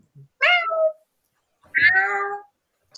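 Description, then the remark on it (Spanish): A cat that has got inside meows twice, fairly loud, each call a drawn-out, wavering cry with a short pause between them. “Al lado, porque ya se nos metió un gato, mm.”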